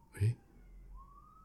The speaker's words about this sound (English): the ambulance